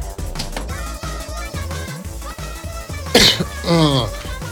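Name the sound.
coughing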